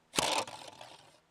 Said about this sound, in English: That's the sound of a winner spinner.